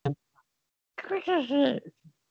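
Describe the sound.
A person vocally mimics a short, squawky 8-bit electronic game creature cry, a wobbling, nasal burst lasting about a second, fairly loud, preceded and followed by brief mouth noises.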